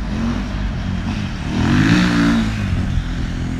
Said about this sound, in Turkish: Anam bugün ne motor geçiyor be.